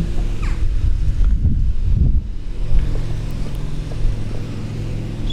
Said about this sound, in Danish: Der kører en en mand rundt og slår græs. Jeg har lavet mig fortælle, at græsset bliver slået en gang om ugen.